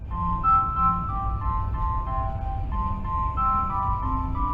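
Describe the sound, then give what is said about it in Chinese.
A high-speed train's arrival chime for Zuoying terminal station plays a bright, steady electronic melody of sustained notes over a constant low rumble, with no voices. “本列车即将抵达终点站左营站，下车时请记得您的随身行李，并请留意月台间隙。”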